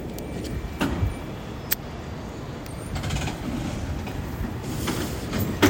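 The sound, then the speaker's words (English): A San Francisco cable car trolley rumbles as it pulls up right here, a steady low mechanical drone broken by a few sharp metallic clicks and clanks, with no one speaking. “Nice quiet time as the SF trolley pulls up right here.”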